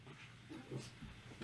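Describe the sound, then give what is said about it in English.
Dogs barking in a quick run of short, low, gruff barks, fairly steady over a second or so, with no one talking. “My dogs agree that Jose Altuve and Jeremy Pena are amazing.”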